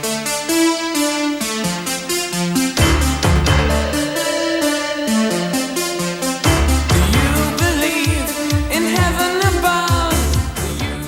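A synth-pop song from 1983 plays loud, with steady layered synthesizer chords over a driving drum beat; a sung melody joins halfway through. No one talks over it.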